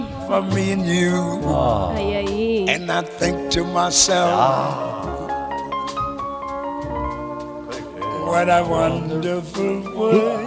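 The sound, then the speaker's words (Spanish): A jazz song plays on air at full volume, a vibrato-rich melodic lead riding over steady rhythmic accompaniment with sharp percussive accents, continuous throughout with no one talking over it. “Y vamos escuchando este tema.”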